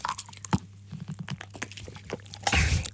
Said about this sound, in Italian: scusate devo bere un sorso d'acqua.